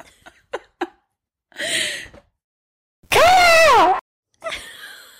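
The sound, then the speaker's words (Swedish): A person imitates a raven: a few soft mouth clicks and a breathy rasp, then one loud, hoarse, drawn-out call that dips in pitch, followed by another raspy breath. “Kanske en är det ju, det kanske bara bor en korp, du vet, i mitt område i Värmland.”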